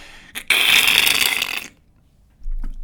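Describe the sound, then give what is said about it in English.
A voice imitates a big car scraping along a wall while turning a tight corner: a short click, then a loud, harsh, sustained grinding hiss lasting over a second, followed by quiet and a low rumble. “about three hours after buying the car, I have a huge, huge scratch and dent in the car. I'd scraped it all across the wall.”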